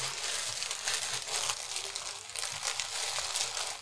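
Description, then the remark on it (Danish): A plastic bag crinkles continuously for a few seconds, a dense, crackly rustle with small irregular bursts as fine white absorbent powder from a diaper is worked out of it. “Se, nu har jeg øh, fået pulveret ud her, som du kan se.”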